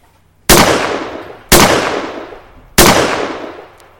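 Three loud shotgun blasts, each a sharp, booming crack with a long echoing decay, fired about a second apart, with no voices.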